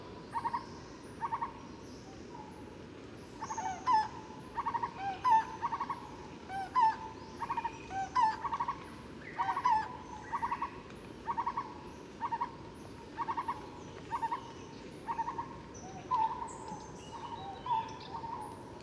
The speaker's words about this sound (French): Là, on entend deux espèces de barbus.